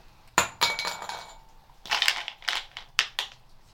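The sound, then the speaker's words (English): Brazil nuts clatter into a glass bowl in a few sharp bursts, bright clinks and rattles, with quiet gaps between drops and no voices. “Brazil nut, glass bowl.”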